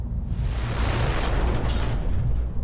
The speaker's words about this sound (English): of steel shattering. And this time she knew where the sound came from and what it must mean and she watched in horrified helplessness, in slow motion. The eye of that great steel chain split open right in front of her, just like her own eyes had.